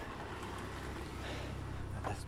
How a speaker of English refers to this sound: Car pass, nice Lexus people have expensive cars here in this part of the town.